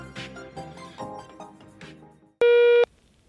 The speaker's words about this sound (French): Laissez-nous un message vocal sur Facebook et nous vous publierons. La parole est à vous après le bip sonore.